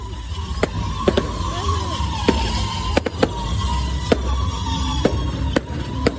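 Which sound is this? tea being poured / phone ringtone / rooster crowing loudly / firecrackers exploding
firecrackers exploding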